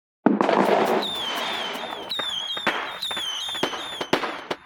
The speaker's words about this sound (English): Is there some pyrotechnic thing going on here?